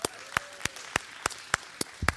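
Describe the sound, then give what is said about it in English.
Sparse, sharp hand claps land in an even rhythm, about three per second, a thin round of applause from only a few people, with no talking, applauding the men in the audience who have already finished their Christmas shopping. “Let's give these brothers a hand of applause.”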